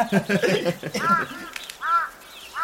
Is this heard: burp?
no